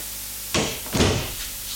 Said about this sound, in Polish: Drzwi otwieram, zamykam. Dobra, może jeszcze raz otworzę i teraz zamknę.